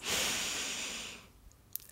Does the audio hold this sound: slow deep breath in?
yes